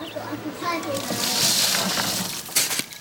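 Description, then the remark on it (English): Urine mixed with water is poured steadily around the base of a plant as fertilizer, a soft continuous splashing that swells midway and ends with a brief louder splatter, while children's voices chatter faintly in the background. “Pouring it around the base of the plant rather than directly onto it means that the nutrients reach the plant's roots.”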